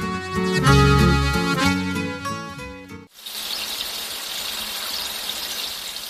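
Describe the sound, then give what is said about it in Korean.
Ringing piano notes for about three seconds, then a steady, dense fizzing and crackling like light rain. It is traditionally brewed Korean rice wine, made from rice, nuruk starter and water, bubbling as it ferments and ripens. No voices. “피아노 소리나 소나기 지붕에 떨어지는 그런 소리가 스스로 이렇게 우러나오죠. 그게 이제 술이 잘 익고 있는, 있는다는 뜻입니다.”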